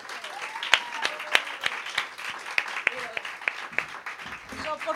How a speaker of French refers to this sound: Euh, alors, je, oui, euh, euh, c'est d'abord, on peut applaudir